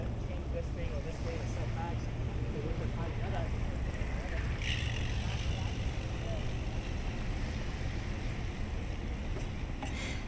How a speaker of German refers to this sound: Das Wasser schlägt gegen die Boote und die Flaggen des Yachthafens flattern im Wind.